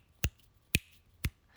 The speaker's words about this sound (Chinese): 因为我特别从老师，你知道他上整堂课的时候给我留下最深的一个记忆，就是打手指打响指。